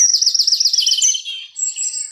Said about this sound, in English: where we can hear the birds.